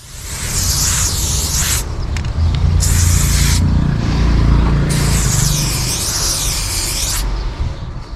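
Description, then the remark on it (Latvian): An aerosol spray paint can hisses in three bursts, a long spray, a short one, then another long one, with a low rumble underneath and no voices. “Tā skan krāsu aerosoliņš.”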